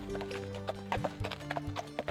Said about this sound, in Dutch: Vervolgens vertrok hij te paard voor jullie uit, samen met een krijger-escorte van holgoblins.